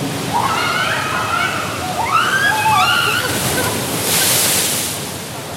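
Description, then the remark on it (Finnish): Steady water sloshing and splashing in a pool of hot water, like a hot tub churning, continuous throughout with a brief surge of hissing near the end. Faint voices rise and fall in the background. “No me tultiin tähän ihanaa altaaseen ja ajateltiin, että mukava rauha ja panhuilumusiikki ja sitten tuli tommosia ihme korsteja.”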